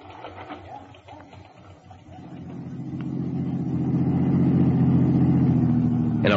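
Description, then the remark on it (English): A rented car's engine hums low and steady as it is driven back to the Anderson address, growing louder and fuller after a couple of seconds as if the vehicle is driving closer or picking up speed, with no talking. “rented car, I drove back to the Anderson address, parked across the street, and watched.”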